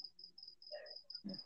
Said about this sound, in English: I hear crickets, man.